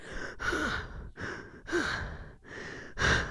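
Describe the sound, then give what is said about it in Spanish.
A person breathes heavily and rhythmically, several loud, breathy exhales and inhales in quick succession, as if panting through a workout. No words are spoken. “Pero yo, o sea, imagínense estar haciendo ejercicio y solo respirar esto.”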